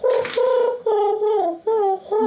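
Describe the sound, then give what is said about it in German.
A person imitates a pigeon's cooing with a voice, producing about four fairly loud tonal coos with gliding, falling pitch and brief pauses between them. “Die klingen aber sonst so klingen Tauben.”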